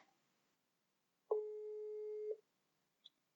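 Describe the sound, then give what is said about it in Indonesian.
A single long electronic telephone ringback tone while calling a guest, a steady beep lasting about a second, clear, followed by a faint short click; no one speaks. “Nah, langsung aja kita telepon siapakah dia.”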